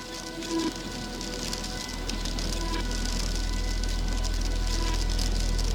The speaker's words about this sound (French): Une autre fois, il est allé faire un tour dans les îles Féroé et pareil, il a enregistré des sons. la pluie, du vent.